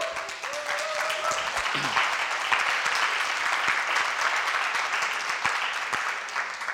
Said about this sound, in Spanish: Pues eh, queremos dar la más cordial bienvenida a cada persona que nos ve a través de Spotify y las plataformas. Reciban por favor un aplauso en cualquier parte del mundo donde estén.